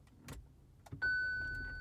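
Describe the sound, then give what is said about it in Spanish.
A car engine is started by a person recording from inside the car: a couple of brief clunks, then the engine catches into a steady, loud hum with a thin high whine running over it. “Eh, y voy a aprender yo estoy grabando desde mi auto, señores, pero voy a prender el carro porque, aunque haga un poco de ruido,”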